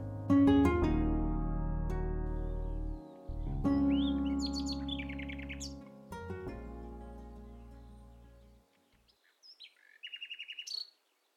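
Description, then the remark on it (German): A blackbird sings short, bright phrases over a loud, sustained musical drone; after the music fades, a final burst of chirpy song rings out alone. “Eine glänzende Amsel landet auf betongrauen Mauern.”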